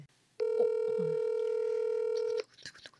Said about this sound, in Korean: 전화 연결 한번 해보겠습니다.